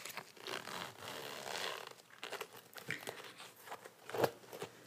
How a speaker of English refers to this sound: It's about, it's a pretty small sized bag. Take that one out. And it's got this little ribbon attached at the end so it's easier to pull it open and closed.